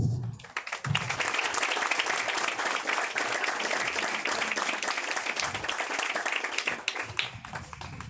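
A large audience applauds steadily for several seconds, a dense wash of clapping hands that stays loud and even before tapering slightly at the end, welcoming María de Jesús Patricia Martínez, spokeswoman of the Indigenous Government Council (Consejo Indígena de Gobierno) in Mexico.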